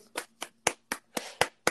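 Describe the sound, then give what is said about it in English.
A brief burst of applause for the word "ingratiate": about seven sharp, evenly spaced claps in quick succession, fairly steady in loudness, with no talking over them. “Well, round of applause for ingratiate.”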